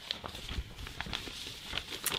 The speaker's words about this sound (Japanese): でこれ今ペーパーノイズがねあった方がいいかなと思ってこの紙のこの音あった方がラジオっぽいやろうと思ってあの目の前の何も書いてない裏紙をただガシャガシャやるようだけで何も実はこれメモは書いてないです